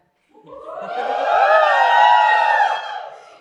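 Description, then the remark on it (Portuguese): A live audience at an event organized by Curral in Belo Horizonte (BH), Minas Gerais, cheers and whoops loudly for a few seconds, a dense swell of many voices that rises quickly, holds steady, then fades slightly at the end. “pois é, não é só quem está em casa ou no trânsito, na rua, tá ouvindo, tem uma galera aqui comigo, né?”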